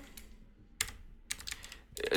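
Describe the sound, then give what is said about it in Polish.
Computer keyboard keys, including the numeric keypad, clacking in a few separate bursts, sharp, with quiet pauses between presses and a louder cluster at the end, as a software program is operated; no voices. “Y, ktoś powie, że tu nic nie ma pod tabem i shift tabem i się z tym zgodzę, na przykład klawiaturą numeryczną, jeżeli będę tutaj coś machał.”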